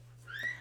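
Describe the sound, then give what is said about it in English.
A brief, thin meow from Darcy, a pet cat, rises and fades, heard faintly over a steady low electrical hum. “That is that is my cat wanting to join the podcast.”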